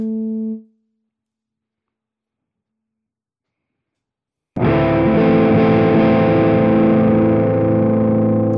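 A brief low guitar note fades quickly, followed by about four seconds of silence, then a loud, thick distorted electric guitar chord rings out and sustains through an effects pedal.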